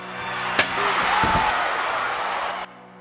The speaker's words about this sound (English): Even being hit by a steel chair leaves him strangely satisfied.